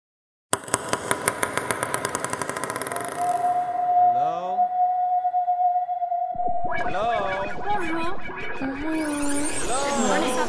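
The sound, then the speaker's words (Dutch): A short produced jingle for the show Luisteren voor beginners plays: a fast ticking pulse speeds along, a steady whistling tone holds for a few seconds, then a busy burst of warbling, voice-like sounds takes over, loud. “En daarom zal ik ah, even de jingle voor luisteren voor beginners opzetten.”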